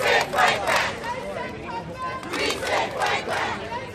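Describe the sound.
Several dozen well-organized demonstrators from a local hospital, Interfaith, chant the slogan 'we will fight back' in unison on a square in Brooklyn, loud rhythmic shouted phrases repeating in regular waves over a steady background of voices.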